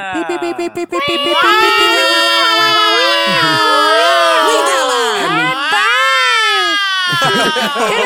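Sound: voice imitating a siren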